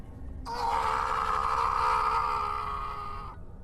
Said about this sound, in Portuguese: Gritei o mais alto que pude, mas o ruído do mar e as paredes grossas do farol abafaram meu desespero.